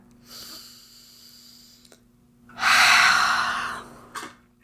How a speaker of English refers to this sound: Take a deep breath.